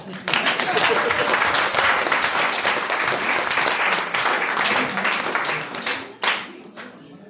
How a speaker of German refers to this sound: Ihr seht auch hier ein weit gereister Coin, der 23 Länder besucht hat, fast 70.000 Kilometer zurückgelegt hat und dafür gibt es nicht nur eine Urkunde, ja, Beifall hier.